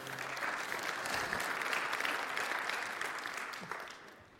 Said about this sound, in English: one person claps, you all have to.